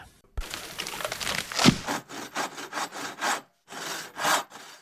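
A hand saw cuts through wood, starting with a sharp knock and a burst of rough rasping, then settling into a steady back-and-forth rhythm of gritty strokes, with no voices.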